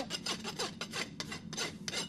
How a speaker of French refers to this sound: Et là, on met un petit coup de râpe pour la finition.